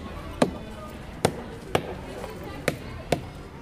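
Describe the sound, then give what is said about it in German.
A rubber mallet strikes a tree trunk at the Zolli zoo five times, each a dull, hollow knock at uneven intervals, standing out over a low steady background noise. “Es spendet an sonnigen Tagen Schatten, es sorgt an verregneten Tagen für Scherme und wenn man ihm mit einem Gummihammer zu nahe kommt, macht es das Geräusch.”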